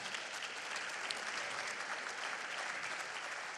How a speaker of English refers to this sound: And since then, yeah, give him a clap.